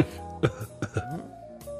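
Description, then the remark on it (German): A few short, sharp coughs in quick succession, moderately loud, sounding deliberate or put on, over a faint steady background tone. “Ja gut, dann äh, hust ich ein, zweimal.”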